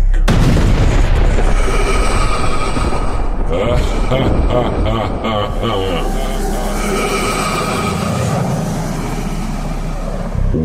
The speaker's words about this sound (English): first, there was nothing. And then, the Big Bang.